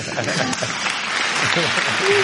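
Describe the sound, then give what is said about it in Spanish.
A burst of steady applause, many hands clapping in a dense, even patter that holds for about two seconds, with a few voices faintly mixed in underneath. “oh, ah, un aplauso sí señor”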